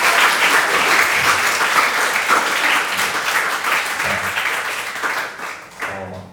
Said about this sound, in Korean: 자, 누군지 모르겠지만 우리 격려의 박수 한번 쳐주면 좋을 것 같아요.